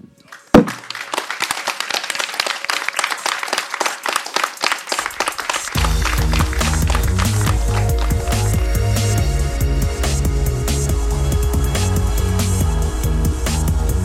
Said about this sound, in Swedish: För då skulle jag faktiskt tycka att det vore på sin plats han är inte här nu, men det, det vore på sin plats med en stor applåd för Sam Lundvall.